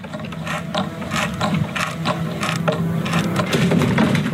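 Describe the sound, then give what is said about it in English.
A ratcheting screwdriver clicks steadily as screws holding up a board are backed out, a rapid string of dry mechanical ticks coming in short bursts with brief pauses between turns, fairly loud and with no talking. “I started taking the screws out.”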